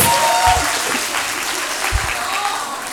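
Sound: audience applause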